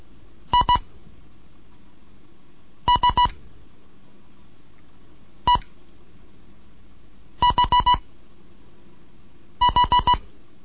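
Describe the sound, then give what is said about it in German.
Morse code beeps from a Morse code lesson (second lesson) in separate groups of short, evenly spaced dits: two, three, one, then four and four. A steady mid-pitched tone, loud and clean over a quiet background with no talking. “Hier ist DJ1 Kilo November mit dem Morseunterricht.”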